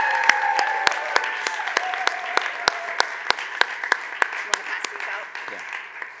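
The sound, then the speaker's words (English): Scattered audience applause for college graduates, a few people clapping in an irregular patter of sharp, distinct claps that continue steadily for several seconds, with voices talking and cheering faintly underneath. “Let's give these guys a round of applause.”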